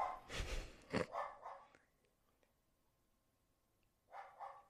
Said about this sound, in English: Grover! hey, mister, come here, Bubba! Okay, I'm sorry, my dog's barking. Dog, we're doing a broadcast here. Don't you know that?